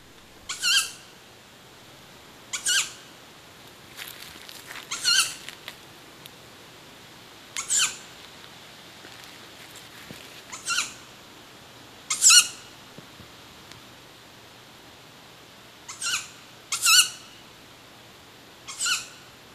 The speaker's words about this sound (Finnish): Tämä on eteläinen, eteläinen pöllölaji. poikainen. Onko tämä enemmän poikasääni? Tämä on ääni nimenomaan kerju, kerjuääni